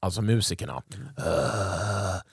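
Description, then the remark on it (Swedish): A brief spoken phrase gives way to a long, sustained low vocal groan or roar lasting over a second, loud, with a strained, growling quality. “det där var vrålet från mig.”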